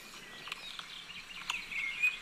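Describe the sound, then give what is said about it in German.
Squeaky, high-pitched garden warbler song chatters from bushes in an even sequence that never builds to a climax, with brief sharp squeaks over a faint outdoor background. “So ein Gequietsche hier vorne. Eine Abfolge ohne einen Höhepunkt aus dem Gebüsch.”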